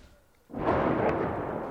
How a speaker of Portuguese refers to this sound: Entre eles, um brasileiro que presenciou uma explosão na vizinhança.